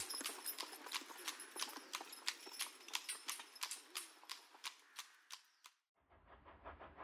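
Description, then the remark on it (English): Horse hooves clop steadily on a hard road as a horse-drawn cab carrying Cytherea and Owen rolls away from their house, a brisk, even rhythm of sharp hoofbeats that stops abruptly near the end, giving way to a low rumble. “Cytherea watches their house, sadly, as they drive away.”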